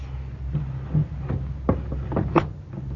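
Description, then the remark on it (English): A door bolt being slid shut on a house door: a series of short wooden knocks and sharp clacks, the loudest near the end, over a steady low hum with no talking. “Go bolt the door.”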